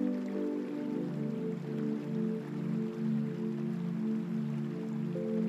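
Continuous rushing of flowing river water, steady and even throughout, blended with a soft sustained musical drone underneath. No one speaks.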